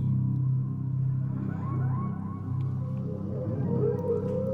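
A steady, deep ocean rumble of waves fills the background while faint dolphin cries rise and wail above it now and then, with no voices present.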